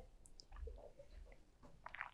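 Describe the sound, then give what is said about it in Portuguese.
Someone gulps down a whole drink of water, with a few soft wet swallows and small mouth noises in an irregular rhythm, fairly quiet and with no talking. “Mentira, porque até terminar eu vou tomar tudo, quer ver?”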